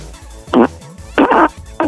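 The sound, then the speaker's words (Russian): Three short, buzzy fart noises blown with the mouth, one on its own and then a quick pair, loud with no talking. “Это ты ртом пукаешь, да.”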